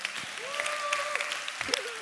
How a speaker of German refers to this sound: Hey, wie wäre es, wenn wir hier aus Nürnberg zumindest mal all den Leuten, die live mit gerade am Start sind, einfach mal einen riesen Applaus geben.